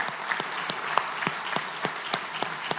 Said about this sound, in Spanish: Le damos un fuerte aplauso, agradecimiento a la gente que ha trabajado.